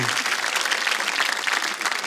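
An audience bursts into applause, a dense, steady wash of many hands clapping at once that holds at an even, fairly loud level throughout with no individual claps standing out.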